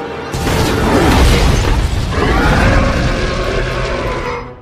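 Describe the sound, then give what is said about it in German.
A helicopter loses control, crashes through a glass dome enclosure and explodes in a loud, continuous burst of shattering, rumbling roar that lasts several seconds before cutting off abruptly. “Der Heli schmiert ab, stürzt in das Glaskuppelgehege und explodiert.”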